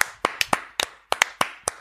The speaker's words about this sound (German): Ich finde, da ja, kann man mal applaudieren.